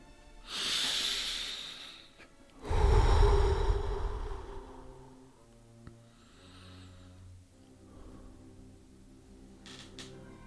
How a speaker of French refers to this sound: Ah oui, les bruits de chaises. Mais bon, j'adore cette chaise, alors j'ai pas envie d'en changer.